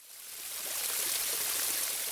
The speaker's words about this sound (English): Yes, it's running water, and this water was running in a little stream next to Sampa.